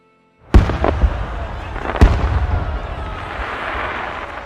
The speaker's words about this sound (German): So verließ Prinz Kaspian das Schloss seiner Väter. Im Rücken ein Feuerwerk, das zu Ehren der Geburt des neuen Prinzen abgebrannt wurde.